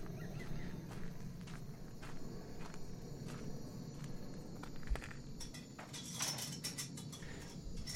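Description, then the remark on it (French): A person's running footsteps crunch along at a brisk pace, easing into a calmer rhythm, over a constant low rumble of background noise; no one speaks. “La course se fait plus calme, il leur a échappé.”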